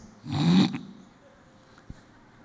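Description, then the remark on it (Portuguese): A voice imitates hawking and spitting on the ground: one short, raspy throat-clearing burst, followed by a faint wet click a moment later, with quiet between. “Jesus cospe no chão, e ele faz um lodo, faz uma lama.”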